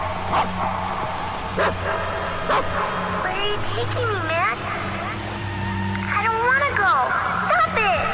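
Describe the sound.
A dog named Mac barks in short, sharp bursts mixed with high, rising yips and whines, over a steady low engine-like hum with voices in the background.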